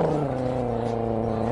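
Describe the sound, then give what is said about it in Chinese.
An actor imitates an angry dog, producing a loud, sustained low growl that holds a steady rumbling pitch for over a second before rising slightly at the end. “号称中华模仿库的他，解放天性说来就来，模仿起狗叫那是以假乱真啊！ 小狗，大狗。狗生气的时候，”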